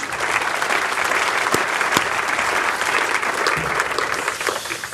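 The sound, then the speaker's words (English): Steady audience applause fills the room, dense overlapping claps at a consistent level for several seconds, from a sizable crowd at a media business event, clapping together for the organisers of the day. “Like, uh, these things don't come together, and if you just give them a round of applause.”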